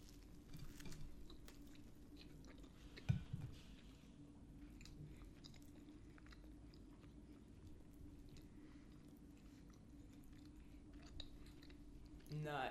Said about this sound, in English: Yep, so if you hate chewing, don't listen.